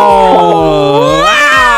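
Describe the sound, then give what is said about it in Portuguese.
A single long, drawn-out cat meow, loud, holding a steady pitch before rising into a wavering, yowling finish, with faint rhythmic thumps beneath it. “Miau! Miau!”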